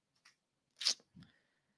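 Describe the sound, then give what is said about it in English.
Printed paper pages of a Globe and Mail opinion article about the Canadian convoy rustle in a few short crisp bursts, a soft crinkle, then a louder papery crunch and a duller shuffle, with no one speaking. “Now, granted, this is an opinion piece, and it's in the Globe and Mail, and I have paper copy because miraculously, miraculously,”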